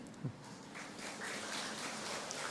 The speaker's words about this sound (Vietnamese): vỗ tay tức là đồng tình phải không